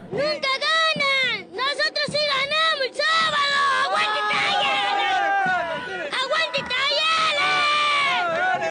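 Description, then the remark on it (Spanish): A child shouts the football chant 'Aguante Talleres' at full voice, high and strained with excitement, continuous over several seconds while a crowd roars and chatters behind. “¿Vieron la euforia de ese niño? Aguante talleres.”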